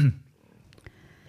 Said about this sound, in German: jetzt knurrt mein Magen.